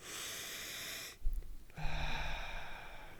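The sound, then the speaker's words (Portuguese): A loud, hissing exhale, a deep breath pushed out through the teeth in two bursts with a brief pause between, sounding like a can of Coca-Cola being opened. Breathy, no talking. “Parecia que estavas a, abrir uma garrafa, de uma lata de Coca-Cola.”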